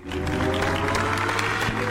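A steady patter of hand clapping fills the two seconds, dense and even in loudness, with a low hum running underneath and no voices.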